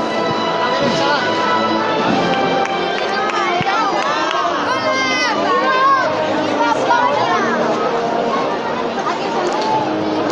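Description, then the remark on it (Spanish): Dozens of children sitting in the chairs of the Plaza de la Constitución chatter and shout at once, a steady, loud babble of high overlapping voices with squeals rising above it throughout. “y ya se nos cuelan de manera inevitable pues el sonido de la chiquillería que se cuenta por decenas aquí en las sillas de la Plaza de la Constitución.”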